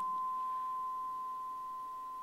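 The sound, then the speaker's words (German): A steady, pure electronic beep tone holds at one pitch for a couple of seconds, continuous and unchanging, with no other sounds around it. “Das Faszinierende ist, unser Hirn ist darauf geeicht, dass wir irgendwann diesen Piepston nicht mehr wahrnehmen würden.”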